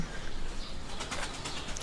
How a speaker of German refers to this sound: Außer die Tauben. Ah ja! die hört man nicht. Zu gute Mikrofone. Sind außer, ganze Tauben lang geflogen. Außer die Tauben hört man einfach mal gar nichts.